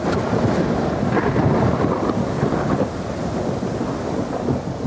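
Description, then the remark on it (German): A raging storm roars steadily in complete darkness, heavy rain pouring down under deep, rumbling thunder that swells and rolls throughout, loud with no break. “Im tosenden Sturm und bei völliger Dunkelheit verlassen die Männer und die Inuit-Mutter mit ihren beiden Kindern das Schiff.”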